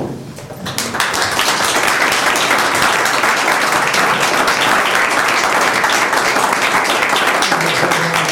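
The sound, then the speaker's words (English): Sustained applause from a room full of people for the board, who have been asked to stand, dense overlapping clapping that swells in within the first second and stays loud and steady throughout. “I would like to give you a, a, some applause here.”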